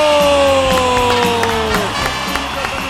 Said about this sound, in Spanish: Un aplauso a Isela, tronco de comunicadora Pacheco.